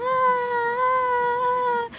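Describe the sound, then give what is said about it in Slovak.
A voice imitates the singing of the speaker's baby daughter with one high, steady, sustained note, held for nearly two seconds and then breaking off; fairly loud, with no other talk. “Ona, ona vydáva, keď začne spievať, vydáva také zvuky, také”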